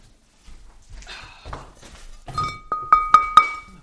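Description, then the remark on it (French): Someone rummages through cookware in their kitchen searching for a metal fondue pot, with soft knocks and clatter building into three quick, ringing metallic clanks of the pot, without voices. “Non, non, mais non, là on vous entend chercher dans votre cuisine, là.”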